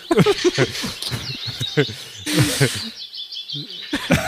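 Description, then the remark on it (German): Birds chirp and twitter outdoors in quick, high repeated calls, with people talking over them for much of the time. “Tut mir leid, aber ich höre nur Vögel.”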